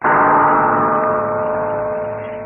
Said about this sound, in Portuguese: Esta é suave gongada que acabar de ouvir anuncia estar no ar a PRK30